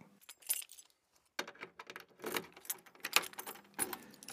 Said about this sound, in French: Esteban glissa la clé dans la serrure et poussa avec peine la lourde porte.